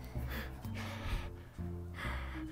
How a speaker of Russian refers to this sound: даже стал угрожающе дышать в микрофон.